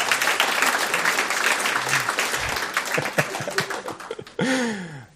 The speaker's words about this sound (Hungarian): Mi lenne egy tapsal, megköszönnénk neki?